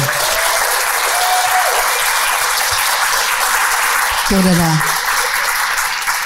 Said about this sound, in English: And of course, especially to our wonderful filmmakers here that have brought this film to fruition. Can we please get a round of applause for these wonderful people?